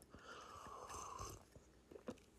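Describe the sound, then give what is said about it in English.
Someone takes a quiet sip of a drink, a soft slurping draw lasting about a second, followed by a couple of small mouth clicks and a faint swallow. No one speaks. “let me get another cu- uh, sip.”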